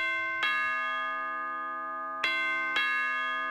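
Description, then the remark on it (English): A doorbell chimes three times: one clear ring that hangs and fades slowly, then two more rings close together near the end. Fairly loud, with no voices. “Cancer doesn't ring the doorbell when it shows up.”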